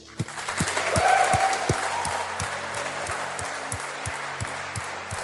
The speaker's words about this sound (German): Lass uns, den, lass uns der Person einen fetten Applaus geben, die sich gerade gemeldet hat.